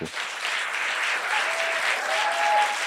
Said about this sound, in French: Merci. Bravo. Euh, merci de cette standing ovation euh, impromptue et très agréable.